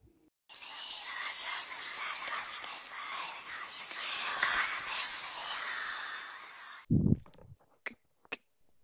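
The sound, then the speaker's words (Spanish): Eerie, breathy whispering heard through a wall beside a bed runs steadily for about six seconds at a moderate level, then breaks off into a brief low voiced sound followed by a couple of sharp clicks. “Escucha susurros.”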